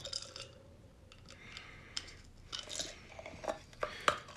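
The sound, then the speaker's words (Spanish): Quiet chewing with soft crunchy bites and small wet mouth clicks, irregular and intermittent, plus a faint clink like a utensil touching a dish. No one talks. “A ver, cheque el tiempo, cabrón, en lugar de estar tragando ayer.”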